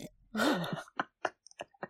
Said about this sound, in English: Having a little sip of my tea.